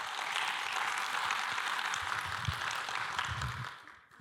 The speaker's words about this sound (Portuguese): Parabéns, gente. Salva de palmas aí. Muito bom.